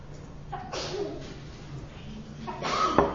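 A sneeze bursts out, a sudden breathy blast, followed a couple of seconds later by another sharp, noisy exhale against a quiet background.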